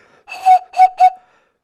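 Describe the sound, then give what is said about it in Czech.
Three breathy, hollow whistles made by blowing into empty cartridge cases from a Hurricane fighter plane: one longer blow followed by two shorter ones in quick succession, clear, with no talking. “A když se do nich foukne, tak takhle pískají.”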